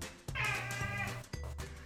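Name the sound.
cat meowing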